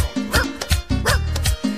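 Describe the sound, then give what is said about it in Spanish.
A dog barks loudly, a rapid run of about five sharp yips and woofs in quick succession with no one speaking. “Lo llama por teléfono y de esta manera el perro le contesta.”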